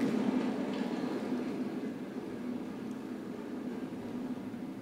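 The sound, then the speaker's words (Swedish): Heavy rain pours down in a steady, dense rush, a continuous low roar that stays at an even loudness for the whole stretch, with no voices over it. “regnar ganska kraftigt.”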